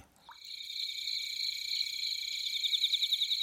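A steady, high-pitched chorus of grass insects chirping continuously, with a pulsing trill growing more pronounced toward the end. Moderately loud, with no voices.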